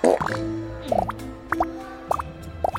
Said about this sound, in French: C'est c'est vraiment très poétique, ces bulles de savon qui s'échappent de votre...